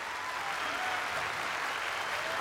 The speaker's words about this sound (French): Le public applaudit à cette annonce totalement inattendue, car il va enfin pouvoir, comme il le réclamait depuis un moment, résilier son abonnement au câble et quand même regarder HBO en streaming.